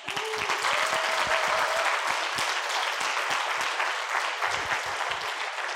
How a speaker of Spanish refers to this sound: Y antes de seguir, ¿por qué no le damos un aplauso a los de cabina que...